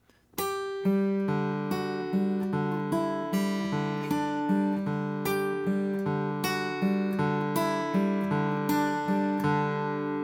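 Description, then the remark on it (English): A guitar plays a steady, repeating backward roll with hybrid picking (ring finger, middle finger, pick), notes picked in a quick descending pattern from a G note to a D note that keeps ringing over a sustained low note, clear with no talking. “so that's the backwards roll.”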